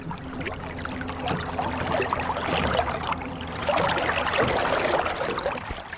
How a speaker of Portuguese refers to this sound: com o barco a sair do cais